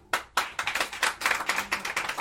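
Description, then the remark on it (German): Brief, sparse audience applause for a question about living in a computer game: a small group clapping unevenly in quick, sharp claps for about two seconds, with no cheering or voices. “Äh, dann äh, euer Applaus für die Frage, wenn ihr in einem Computerspiel leben müsstet.”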